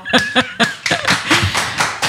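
Short burst of applause: a few distinct, sharp claps at first, quickly thickening into a denser, uneven patter of clapping hands over about two seconds, fairly loud and without talk.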